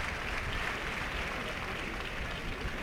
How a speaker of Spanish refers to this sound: Fíjate, ahora mismo está toda la plaza aplaudiéndole. ¿eh? Pues de momento el puyazo de la feria.